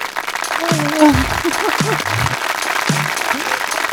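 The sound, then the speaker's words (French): An audience breaks into steady, dense applause, a continuous crackle of many hands clapping that holds for several seconds while voices speak over it. “Une salve d'applaudissements.”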